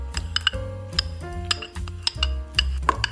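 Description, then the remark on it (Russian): A spoon or fork clinks repeatedly against a bowl while avocado pulp is mixed into something like guacamole, with sharp ringing taps about every half second, over a low background rumble. “Мякоть перекладываю в отдельную емкость. Смешиваю, получается что-то похожее на гуакамоле, мексиканскую закуску.”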